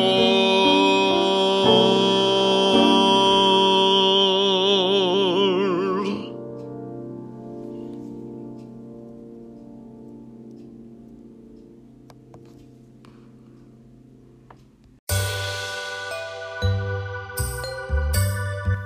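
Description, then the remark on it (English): A recorded song, a singer's new single, plays: a sustained, wavering melodic passage gradually fades into a soft, lingering tail, then a bright new musical section abruptly begins near the end. No one speaks. “You're listening to my new single.”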